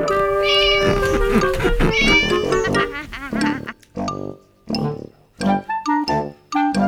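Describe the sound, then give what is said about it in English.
A black cat named Wilbur meows repeatedly and loudly, starting with a long drawn-out yowl and followed by a series of shorter, separate meows with brief pauses between them. “Winnie lived in her black house with her cat Wilbur”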